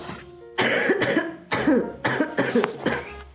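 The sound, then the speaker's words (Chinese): A run of several loud, harsh, genuine (not faked) coughs in quick bursts, about four or five rough explosive hacks with short gaps between them, with no talking. “装咳嗽， 没有啦，真咳嗽。”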